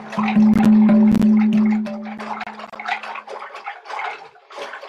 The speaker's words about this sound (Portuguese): Eu faço o som de oceano, né? Que é o ocean drum. É outra técnica. É um giro do pulso enquanto esse aqui tá.